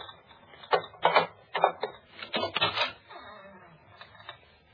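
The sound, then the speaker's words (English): A metal bolt on the outside of a door is worked open, a cluster of sharp rattling clacks and short scraping slides over a couple of seconds, then a faint settling clatter with no voices. “Here, this is the door. Look, it's bolted on the outside.”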